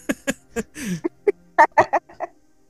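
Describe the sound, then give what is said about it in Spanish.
A rapid, irregular string of about ten short, harsh caws from crows, fairly loud, with brief gaps between the calls and no talking over them. “Son los cuervos de Divergente.”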